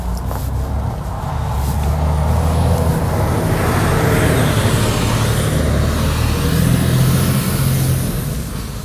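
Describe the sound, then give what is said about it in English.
A heavy semi truck carrying bread from a factory rumbles past down a street at three in the morning, its deep engine drone swelling loud before easing slightly, with a faint hiss of air brakes and road noise throughout. “Yes, there's a giant semi truck coming at me.”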